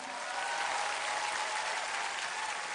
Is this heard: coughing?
no